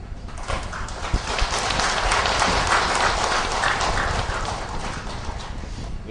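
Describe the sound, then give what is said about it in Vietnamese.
An audience at a Buddhist talk on the Medicine Buddha Sutra claps steadily, a dense crackle of many hands that swells quickly and holds at a fairly loud, even level for several seconds, with no voices on top. “tiếng càng vỗ tay đó cho thấy là quý vị ờ, rất hoan hỷ trong việc thọ trì và áp dụng kinh dược sư theo tinh thần là ứng dụng hơn là tín ngưỡng”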